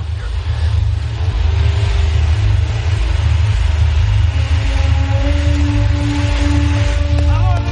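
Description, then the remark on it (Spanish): Two police cars pull away at night from the skeleton of an abandoned building, with a deep, steady engine rumble that holds throughout, while faint rising engine tones climb near the end. No one speaks. “Dos coches de policía se alejan del esqueleto.”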